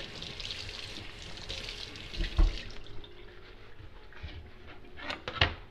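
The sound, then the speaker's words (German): Tap water runs steadily into a sink with a broad hiss, broken by a couple of louder splashes and clunks as a zucchini is washed under the stream. Fairly quiet, with no talking. “So, den Zucchini, den habe ich mal schon herausgelegt. Der wird jetzt gewaschen.”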